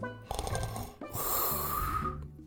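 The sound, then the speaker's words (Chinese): Two loud, rasping snores in a row, the second longer and breathier than the first, performed by a voice imitating a sleepy little pig dozing while slumped over an empty basket, with no talking. “小猪觉得很困，他夜里睡得太少了，他伏在空筐上，打了两声呼噜。”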